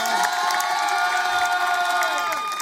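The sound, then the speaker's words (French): An audience in the public studio of the radio station Fréquence Plus, during a live broadcast, cheers and applauds steadily for a few seconds, with many high-pitched excited voices shrieking and whooping together in a loud, continuous roar that keeps the same level throughout. “Applaudissements, elle est avec nous jusqu'à 19h15.”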